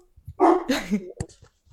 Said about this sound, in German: Hallo der Hund der Hund alles gut